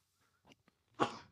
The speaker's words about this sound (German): Gesundheit.